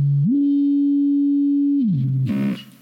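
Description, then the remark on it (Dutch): A pure electronic sine tone from a tone generator hums at a low pitch, glides up to a higher steady note and holds it, then slides back down before a short burst of noisy distortion ends it. “U heeft nu twee sinusgolven gehoord, eentje wat lager, eentje wat hoger.”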